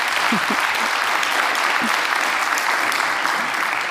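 Steady audience applause fills the whole stretch, a dense wash of clapping at even loudness with no pauses, plus a few faint low voice-like murmurs underneath.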